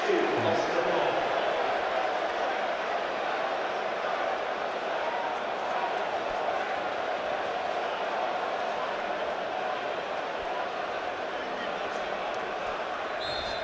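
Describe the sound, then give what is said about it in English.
A large stadium crowd roars and cheers steadily during a City substitution, Oscar Bobb coming on and Matheus Nunes going off, a dense wall of voices that stays loud and sustained throughout, with no single speaker standing out. “As you can hear from the cheer.”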